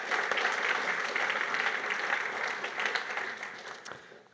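Sustained applause from an audience, a dense crackle of many hands clapping at a steady level before tapering off toward the end.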